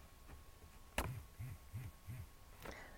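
A banknote detector vibrates four times, signalling a 50 euro note, in a quick, even rhythm, each a short low buzz, bracketed by a sharp click before and another after. Quiet, with no talking.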